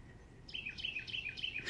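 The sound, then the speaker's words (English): A thrasher trapped inside a house sings in quick, repeated chirping phrases, about five bright notes in steady rhythm, clear over a faint background hiss. “Hear that back and forth of the birds?”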